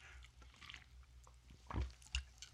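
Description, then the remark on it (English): A quiet swallowing of water: a couple of wet, throaty gulps in quick succession near the end, with faint mouth sounds before them and no talking. “You heard that gulp. That was me swallowing some water.”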